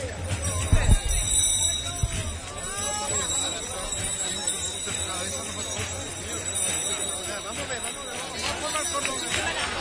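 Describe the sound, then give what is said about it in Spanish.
The bells of a brotherhood house (casa de hermandad) peal steadily over a dense, murmuring crowd, with a few brief thumps near the start. People talk throughout, but no clear words stand out. “El campaní de su casa hermandad ya repica.”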